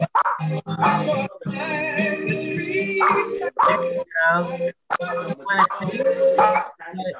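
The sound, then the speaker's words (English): Dogs bark and yip in a continuous jumble of overlapping voices, with whining, drawn-out tones running between the sharper barks. “Dogs are talking.”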